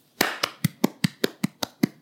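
Hands clap in a quick, steady rhythm, about nine sharp claps over two seconds, with a brief scattered wash of clapping at the start and no voices; the applause thanks the person who does the show's sound.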